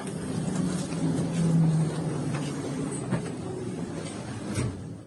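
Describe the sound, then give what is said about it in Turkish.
Steady low rumble and hum of a Marmaray commuter train carriage in motion, with faint rattles and clicks from the car over continuous, moderately loud track noise; no one speaks. “Marmaray'da bir bakan ayakta yolculuk yapıyor.”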